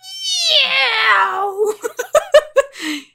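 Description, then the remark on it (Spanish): Two baby kittens meow and caterwaul in the room where a person records: one long, loud, drawn-out wail that slides downward, then a quick string of short, sharp mews ending in a brief whine. “Alejandra está siendo niñera de dos gatitos bebés que al parecer eh, están exorcizando el, el, cuarto donde Ale graba”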